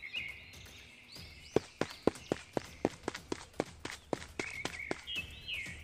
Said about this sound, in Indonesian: Kemudian Bunda segera bergegas menemui Aris. Ia berlari kencang.